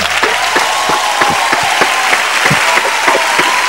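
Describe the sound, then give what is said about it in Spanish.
A burst of dense, steady applause from a small group, many overlapping claps sustained at a fairly loud level throughout, with no talking. “Y esto se merece un humilde aplauso porque vamos por mucho más.”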